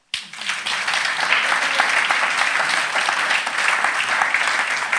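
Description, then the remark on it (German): Sustained audience applause: many hands clapping in a dense, steady wash of sharp claps, loud and unbroken for the full length, starting abruptly and holding without a voice over it. “Das war ein Applaus für dich.”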